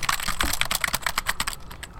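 Rapid keyboard typing, a steady patter of sharp clicks close to the microphone, running for about two seconds with no voices.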